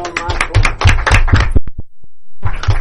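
A burst of applause for a young girl guest: dense overlapping claps for about a second and a half, then a brief lull with a few scattered claps before the clapping picks up again.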